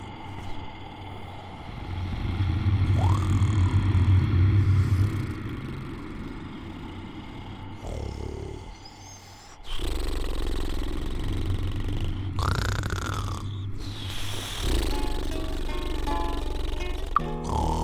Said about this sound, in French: il s'endormit très tranquillement et se mit à ronfler à son tour très très fort, plus fort encore que le diable.